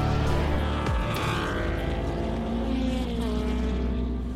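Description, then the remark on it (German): Background noise at the Nürburgring race track on a Wednesday: a loud, continuous engine roar with layered droning harmonics, one engine note sliding downward early on, then a steady hum. No one speaks. “Heute gibt es ein paar Nebengeräusche, denn ich bin heute schon am Nürburgring.”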